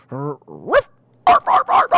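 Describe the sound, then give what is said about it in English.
A man's voice imitates a dog, starting with a low, growly vocal sound and a rising yelp, then four quick, loud barks in a steady rhythm. “like a dog bark”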